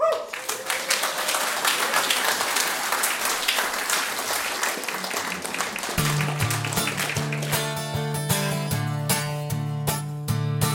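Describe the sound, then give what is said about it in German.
Dense, steady audience applause at a live concert in Warin, a crowd clapping continuously; about halfway through, music starts up and the clapping carries on underneath it. “Ihr könnt ruhig klatschen, ne?”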